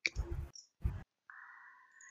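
Two short bursts of rapid key clicking on a new keyboard, separated by a brief pause, followed by a steady electronic hum or tone after the typing stops. No one speaks.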